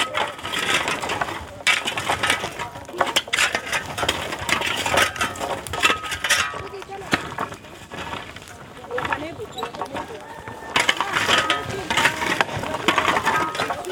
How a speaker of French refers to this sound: Là, on est en train de préparer le four. Euh, Jimmy Gwener, professeur de documentaliste au collège de est en train d'étaler les, cailloux